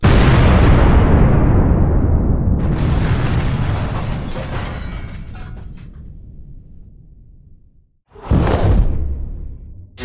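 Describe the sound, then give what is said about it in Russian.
A quarry blasting explosion: a deep, heavy boom rolls and slowly fades over several seconds while a hiss of scattering debris rises, then a second loud burst cuts in near the end. No voices. “Техника прекращала работать перед очередным взрывом.”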